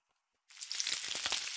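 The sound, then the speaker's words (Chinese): Chicken for a Springfield-style cashew chicken hits a hot pan after a brief silence and is briefly pan-fried before going into the oven, a sudden, steady, bright sizzle with scattered crackles and pops that holds loud to the end. No voices. “它的鸡肉只需要稍微煎过就好。”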